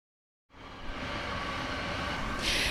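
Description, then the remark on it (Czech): A train passes on the railway at Čeperka in East Bohemia after a moment of silence, a steady loud rumble of wheels on rails with a hissing rise near the end, with no voices. “Právě můžete slyšet projíždějící vlak, protože dnes s východočeskými výlety jsme v Čeperce a právě tu stojíme vedle železnice, protože tady je velmi zajímavé místo”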